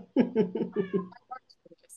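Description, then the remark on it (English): An old, territorial male cat meows loudly in a quick run of five harsh, insistent calls, then trails off into a few softer, brief chirps and squeaks. “he's Foxy. feisty. There's another cat behind him. he's very territorial of his area.”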